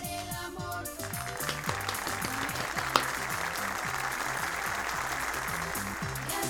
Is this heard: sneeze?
no